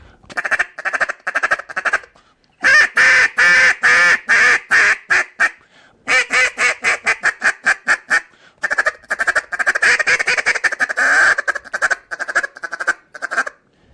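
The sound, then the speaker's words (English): A new Fuze duck call in a small LT frame is blown, loud raspy quacks delivered in quick rhythmic runs, a few separate sequences with short pauses between them, and no talking over it. “it'll be a little raspier than a standard center, and it's a little bit faster because it's in that little LT frame”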